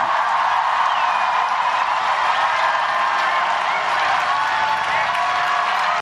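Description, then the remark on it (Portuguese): Sustained applause from a large audience after a speech, a dense, steady wash of clapping that holds at an even, fairly loud level for the full six seconds with no voices rising above it. “Só bater palma? É o momento ah. salva de palmas?”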